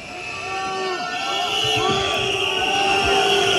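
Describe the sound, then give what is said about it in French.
A loud, agitated crowd of farmers boos and jeers Emmanuel Macron at the Salon de l'Agriculture, many overlapping voices rising and falling in sustained hoots and shouts that continue without a break across the whole clip. “Emmanuel Macron accueilli hein, par euh, les huées d'agriculteurs qu'on entend”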